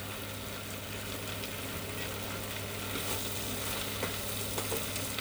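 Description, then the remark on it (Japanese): Steady sizzling and crackling of yakisoba noodles being stir-fried in a hot pan on an induction (IH) cooktop, with occasional scraping and stirring noises over a constant low hum; no one speaks. “よしいいだろう焼きそばっぽくなってきたお皿に盛るよ”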